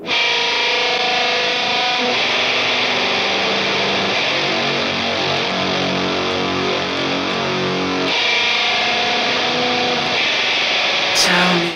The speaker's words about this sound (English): That's a really splatty sounding bit of uh, distortion, fuzz, whatever.